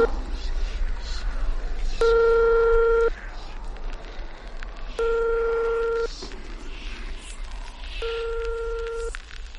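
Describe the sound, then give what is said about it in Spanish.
A telephone ringback tone sounds three times, each burst about a second long with a few seconds of gaps between, clear and steady over a low background hum as the call goes unanswered. “Coge el teléfono.”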